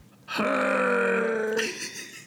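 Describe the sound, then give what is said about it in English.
A person imitates Chewbacca's growl: one loud, sustained guttural roar lasting about a second, rough and throaty, then trailing off into a quieter rasp. “All right, so Chewbacca growl mm-hmm. on three. One, two, three.”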